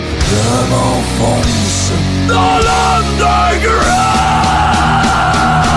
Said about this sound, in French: Toujours ce magnifique jingle et je vous présente maintenant Underground 2.0 euh, un peu revampé.